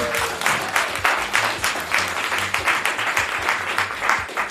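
A crowd applauds loudly and steadily for several seconds, a dense wash of many hands clapping close by, with faint voices murmuring underneath.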